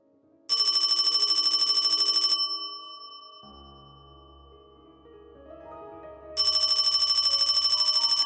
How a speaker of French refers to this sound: son téléphone réveille les endormis au fond de l'amphi.